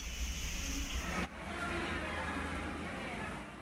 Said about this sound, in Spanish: La intensidad de los aguaceros causó un gran entaponamiento vehicular, tal como fue el caso de la autopista Duarte, donde el tránsito colapsó por completo.